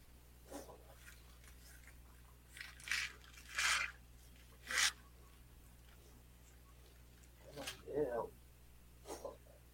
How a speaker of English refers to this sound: Hey, if you're wondering what you heard in the background, if you heard something coughing, that was my cat Betty he hasn't been feeling good the past couple days.